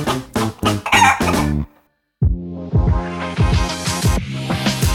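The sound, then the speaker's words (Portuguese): A chicken clucks in a quick series of loud bursts, falls silent briefly, then a rooster's crowing rings out over continued clucking. No one speaks. “A gente precisava de uma galinha.”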